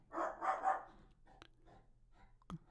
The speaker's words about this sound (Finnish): Se, nyt alkoi muuten Kope, Kope alkoi haukkumaan taustalla. Mi- mitähän se huutaa?